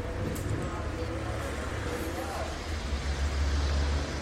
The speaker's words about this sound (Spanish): Por ahí viene el carro del chatarrero, yo creo. A ver si de pronto lo alcanzamos a escuchar cuando pase.